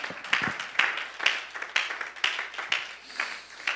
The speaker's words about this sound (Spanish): Alguien puede celebrar esa victoria con el mejor aplauso que le pueda dar este día al Señor.